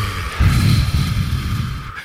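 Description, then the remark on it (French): A long, steady exhale after a deep breath in a breathing exercise, a breathy rush lasting about two seconds before trailing off, with no talking over it. “On expire.”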